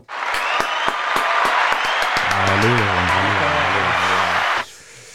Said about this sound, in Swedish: Kan jag få lite applåder eller?